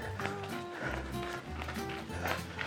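Quick, short running footsteps of someone running up a gentle slope with small steps patter in a steady, rapid rhythm, moderately loud, with a continuous musical backdrop underneath.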